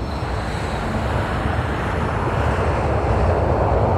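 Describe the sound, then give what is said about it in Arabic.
The two engines of a Boeing 737 MAX, Lion Air flight 610, roar loudly and steadily with a deep, rumbling low end as the pilot starts the takeoff in Jakarta, Indonesia, on 29 October 2018, the noise swelling slightly toward the end as they spool up. No voices are heard. “لكن لاحقاً في التاسع والعشرين من أكتوبر لعام 2018 في جاكرتا بأندونيسيا تستعد رحلة لايون إير رقم 610 للإقلاع داخل قمرة قيادة الطائرة 737 ماكس يضغط الطيار على زر الإقلاع تدب الحياة في المحركين”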